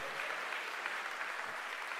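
A steady burst of audience applause for Jesus, many hands clapping densely and evenly for about two seconds with no talking over it.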